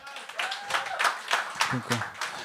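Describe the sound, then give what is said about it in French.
An audience in a hall breaks into scattered applause in answer to a performer's question, dense clapping mixed with whoops and shouting voices from the crowd, steady and fairly loud throughout. “je suis curieux par applaudissement. Y a-tu des membres Patreon du Gang Show dans la salle à soir?”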